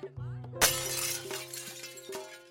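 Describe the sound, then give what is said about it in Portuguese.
Neighbours break the window pane of a house in Brazil; the glass shatters with a sharp, loud crash, followed by a bright tinkling spray of falling shards that trails off over a couple of seconds against a low steady hum. “Mas ela chegou no seu limite quando vizinhos quebraram a vidraça de sua casa e ameaçaram a integridade física dos seus filhos.”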